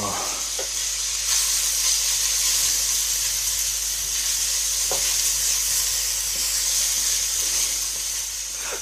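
Steady sizzling of chard leaves frying in a hot pan, a bright continuous hiss with a few soft clinks of stirring and no talking.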